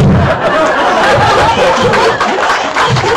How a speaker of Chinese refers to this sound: 你看这个掌声就知道，大家可能对 MBA 班是还是非常期待的，是不是？